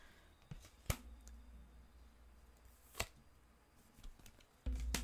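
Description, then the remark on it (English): A deck of tarot cards being shuffled: a few sharp, crisp snaps stand out among quieter riffling and handling noises over a low background hum, with no voices. “okay, I promise I have shuffled these cards.”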